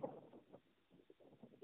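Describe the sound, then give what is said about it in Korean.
Strong wind roars in uneven gusts through the trees on a mountain, a muffled, rushing noise that surges and eases over a couple of seconds, heard over a thin, phone-like line with no one talking. “이렇게 바람이 거세게 불고 있습니다.”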